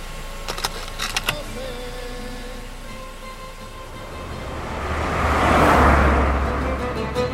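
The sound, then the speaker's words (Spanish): A few quick metallic clicks and jingles, then a low car engine rumble builds and swells louder as the car pulls away from a hotel in Guadix, Spain, in the morning, heading for Jerez del Marquesado. “mañana siguiente, y tras un buen desayuno en nuestro hotel en Guadix, arrancamos el coche hacia Jerez del Marquesado.”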